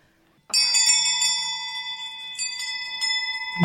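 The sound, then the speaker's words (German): A hand bell, of the kind altar servers ring during Mass, is rung in a small studio. It rings out suddenly and keeps jingling in a steady, bright shimmer of overlapping metallic tones, fairly loud, with a few renewed shakes near the end. “Die Ministranten läuten mit einer Glocke, damit wir gut aufpassen.”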